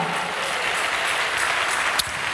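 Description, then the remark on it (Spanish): An audience claps together as applause for God, in a steady, dense wash of applause that holds at an even level throughout, with one sharper clap standing out near the end. “¿Cuántos le dan un aplauso a Dios, hermano?”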